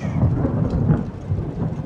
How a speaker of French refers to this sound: Il pleut ainsi depuis des semaines.